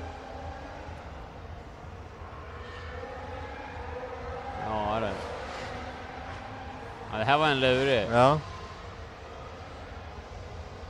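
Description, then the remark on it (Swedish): Formula 1 racing car engines whine in two short, high-pitched bursts, the second louder and wavering as it rises and falls, playing under a casual conversation. “Får lyssna på Formel 1-ljud under tiden.”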